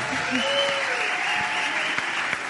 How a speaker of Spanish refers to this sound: Pásate para acá. Un aplauso.